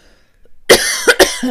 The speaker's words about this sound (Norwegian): Eh, da begynte jeg å hoste, så ja. jeg vet ikke hva kroppen min ville si da, men Det er åpenbart noe ha-ha-ha.